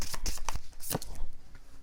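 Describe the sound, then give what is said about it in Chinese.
Tarot cards are shuffled and drawn for a reading in a quick run of crisp, papery flicks and rustles, busiest in the first second and then settling into softer, scattered riffles. No one speaks. “来，回到这里，我要来帮你们抽。”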